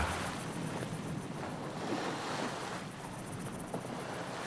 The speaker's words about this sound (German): Und dann fing er an, wieder im Meer zu versinken. Mit Brausen und Gurgeln und Strudeln versank die Erscheinung im Ozean.